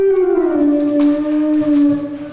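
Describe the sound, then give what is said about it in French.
A loud, sustained, deliberately squealing tone from a vibrating electronic keyboard whose glide is divided into tones and semitones, gliding slowly downward in pitch over a couple of seconds with a slight wavering, and no one talking. “Enfin, il fait des couinements, je vais vous le faire là.”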